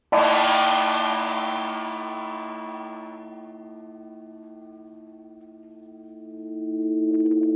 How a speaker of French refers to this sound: C'est le gong qu'utilise sans cesse mademoiselle Posin pour réveiller ses élèves. Il nous indique que nous sommes en retard.